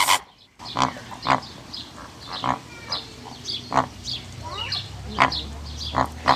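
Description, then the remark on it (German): Flamingos in a zoo enclosure give a rapid series of loud, nasal, goose-like honks at irregular intervals, overlapping with softer chattering calls from the flock, while a low rumble rises toward the end. “Dann verweilen wir jetzt noch ein bisschen bei den Flamingos.”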